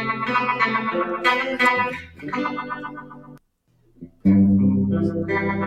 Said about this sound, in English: So the hollow body going on. I also have the bass cut on, and what that the Univibe tends to get dark, and so when you put the bass cut on, the high end is a little bit more shimmery when it does the the echoey thing.